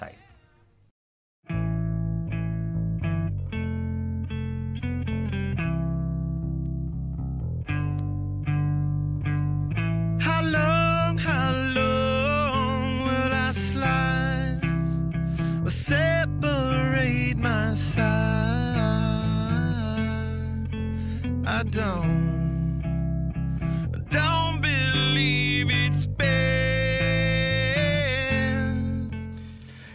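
After a second of silence, a rock song kicks in with steady bass and guitar chords. Around ten seconds in, a wavering sung vocal joins, and the track stays full and loud to the end.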